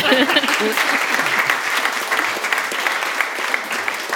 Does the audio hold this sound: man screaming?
no